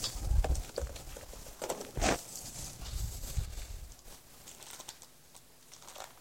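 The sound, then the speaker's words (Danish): Gift wrapping paper on a round package crinkles and rips in quick, uneven bursts as it is torn open, a sharp tearing burst standing out near the middle before the rustling tapers off. “Du må gerne rive papiret i stykker.”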